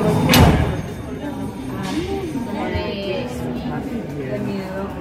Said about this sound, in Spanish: Se cierra una puerta.